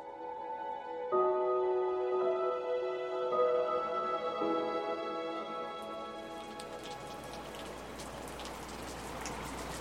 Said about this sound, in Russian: налетевший к вечеру шквал, срывающийся неприятный косой дождь